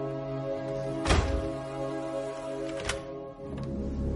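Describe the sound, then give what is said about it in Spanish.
A door swings shut with a solid thud, followed by a softer second knock a couple of seconds later, as Miss Peregrine closes the double doors of the living room, all over a steady low humming drone with no one talking. “Cierra la puerta.”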